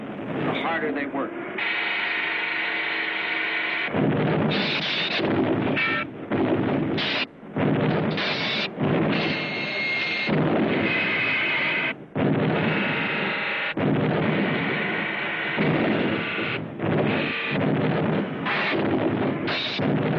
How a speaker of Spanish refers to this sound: Cuanto más arreciaba el bombardeo, más duro trabajaba la gente.